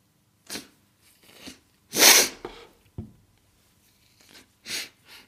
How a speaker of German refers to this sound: Ähm, ja, kurz Nase putzen